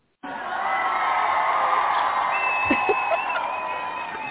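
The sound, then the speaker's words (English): A large crowd cheers and roars loudly and steadily, with whoops and shouts rising over a dense wall of voices that starts abruptly and carries on to the end. “See, they're listening to you”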